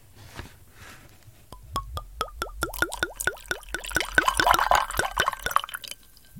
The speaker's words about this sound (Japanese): 聞こえた 聞こえたいい音。ウイスキーのボトルのいい音ですよね。あの、この音はね、ウイスキーボトルのあのくびれてるところ、くびれてるところに空気が通ると、この音がなるんですね。